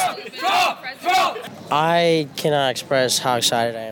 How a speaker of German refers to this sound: Die auf der anderen Seite sehen das naturgemäß anders und brüllen einfach lauter. Die Stimmung ist aufgeheizt.